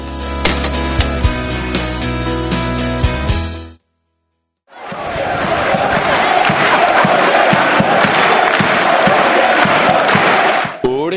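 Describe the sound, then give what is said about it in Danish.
After a few seconds of music and a brief silence, thousands of fans in Malmö's ice hockey arena cheer loudly and continuously at a home game against Mora, a dense roar with scattered shouts and thumps. “tusind veloplagte fans er mødt op for at støtte de lokale helte i kampen mod Mora.”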